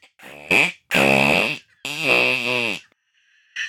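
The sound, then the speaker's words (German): A voice imitates fart sounds with the mouth, producing several loud, buzzy, sputtering bursts of varying length, with short pauses between them and no speech. “Dann blubbert es ein bisschen und nach einigen Versuchen kommt aus seinem Mund ein erstes Pupsgeräusch.”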